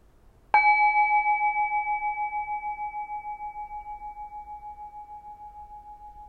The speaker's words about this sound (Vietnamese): Hãy thả lỏng mình lắng nghe tiếng chuông. Mình nghe từ lúc nó bắt đầu cho đến khi nó kết thúc. Để tâm mình giỏi theo tiếng chuông.